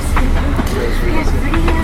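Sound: inside a moving bus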